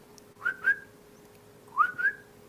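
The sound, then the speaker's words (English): A person whistles two paired calls, each a pair of short rising-falling notes, separated by a brief pause, imitating a male animal whistling to a female; clear with no talking. “And so I start I go to a double whistle.”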